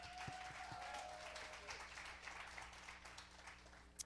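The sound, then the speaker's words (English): An audience applauds a man steadily, a dense wash of many hands clapping at once, fairly loud and sustained throughout, with no talking over it. “So, uh, y'all want to give him a hand?”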